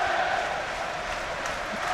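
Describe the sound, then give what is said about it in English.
A dense, sustained roar from a large football stadium crowd during a Brentford versus Wolves match in the second half, fans cheering and shouting together at a steady, loud level with no single voice standing out. “All of a sudden, the noise has gone up, even though the 3 1 down because of the way that Brentford are pushing on to Wolves all of a sudden the crowd's got behind them.”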